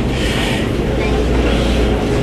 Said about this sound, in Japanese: 皆さんにこの音が届いていますでしょうか私は今 MRT の桃園空港線の車内にいます